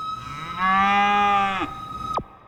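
A cow gives one long, loud moo lasting about a second, over a steady high tone that cuts off with a sharp downward sweep just after the moo ends.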